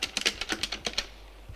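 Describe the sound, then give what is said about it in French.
A quick burst of about eight or nine keystrokes on a computer keyboard as a police commissioner looks something up in his office, crisp clicks at an uneven pace, then a brief pause before one more soft tap at the end. “Une fois qu'il est revenu dans son bureau, le commissaire regarde sur l'ordinateur quels sont les deux lancours.”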